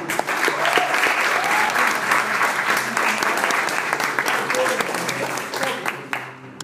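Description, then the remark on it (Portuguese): A church audience applauds the Lord after a family's blessing is announced, a dense wash of many hands clapping at a fairly even loudness for several seconds before tapering off at the end. “E aquela família foi abençoada com 600 reais de se você puder aplaudir o Senhor.”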